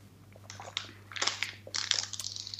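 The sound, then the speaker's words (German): Crunchy chewing as someone tastes a snack meant for eating during a race, a string of irregular crackling bites that grow louder and denser toward the end, over a steady low hum with no talking. “So, ich probiere jetzt mal.”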